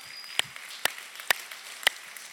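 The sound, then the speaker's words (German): Four slow, evenly spaced handclaps ring out faintly, with only quiet background noise between them and no voices; the applause is given for the mothers. “Okay, also soweit komm mal und wir geben nochmal den Müttern einen Applaus, oder?”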